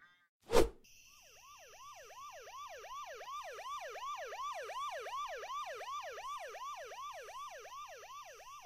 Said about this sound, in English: That's the fifth siren in the last hour.